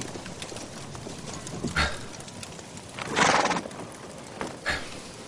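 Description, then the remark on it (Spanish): A horse whinnies loudly, with a few sharp hoof clops and snorts scattered around it against steady outdoor background noise; no one speaks. “Nosotros negociamos a lomos de un caballo.”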